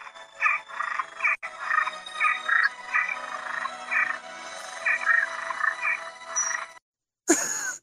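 A toad croaks in a steady series of short, raspy calls, repeating rhythmically for several seconds, then cuts off briefly before a final burst of sound.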